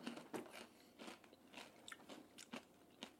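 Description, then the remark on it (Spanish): Crisp crunching of rolled tortilla chips (Takis) being bitten and chewed, a steady series of sharp snaps and crackles over about three seconds with no talking. “Qué bueno están los taquis.”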